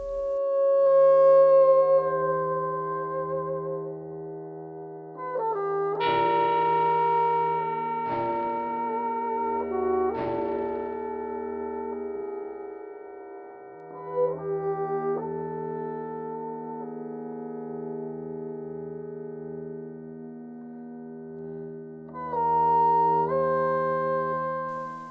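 A sustained bassoon-like reed line with rich harmonics moves between held pitches over layered electronic drones and tones, with a few sharp accented attacks. No voices, just the instrument and electronics throughout.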